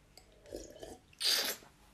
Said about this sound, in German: Ähm, ich würde sagen, wir stoßen jetzt einmal an auf die zweite Folge mit natürlich, was haben wir hier drin? Apfelsaft. Falsch. Prost.